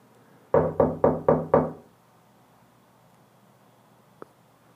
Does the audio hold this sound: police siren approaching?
no